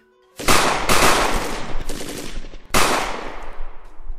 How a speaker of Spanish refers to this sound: Algunos disparos fallan, rozan. Uno rompe directamente el espejo en el cual te estaban mirando. Pero dos impactan.